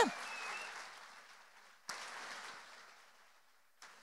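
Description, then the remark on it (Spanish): An audience applauding the Lord during a sermon: a dense, steady wash of clapping that slowly fades, broken by a couple of sudden sharp bursts of renewed clapping. No voices stand out. “Dale un aplauso fuerte al Señor, dáselo fuerte.”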